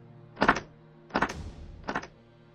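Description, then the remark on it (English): Three slow, evenly spaced knocks on a wooden wall, each a short hollow thud with a brief ring, fairly quiet and alone with no voices. “I mean, it sounded just like someone knocking on one of the wooden walls.”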